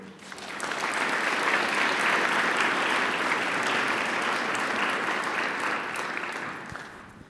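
An audience breaks into sustained applause for a speaker about to open the scriptures, steady dense clapping that swells in over the first second, holds strong for several seconds, then gradually fades near the end.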